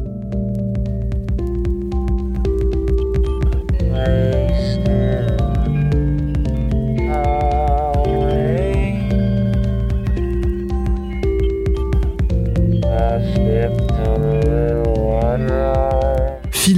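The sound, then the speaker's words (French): A loud, continuous droning hum with an eerie, alien quality, built from layered sustained tones whose pitch wavers and slides, made from a singer's own heavily processed voice, running unbroken throughout. “et puisqu'on crache sur sa voix, il va en faire autre chose, une sorte de bourdonnement alien.”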